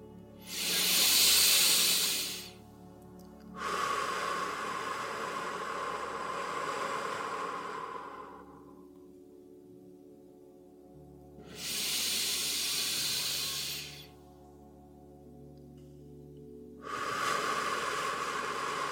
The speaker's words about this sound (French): Alors, commencez par vous installer confortablement et pour marquer le début de cette expérience ensemble, prenons trois grandes inspirations.